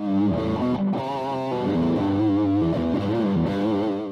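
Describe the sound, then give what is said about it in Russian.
A distorted electric guitar plays a loud, continuous run of thick, sustained notes with a gritty, buzzing overdriven tone and no voices. “Так появились гитарные эффекты. Наиболее известные, применяемые в рок-музыке, это distortion, overdrive и фуз.”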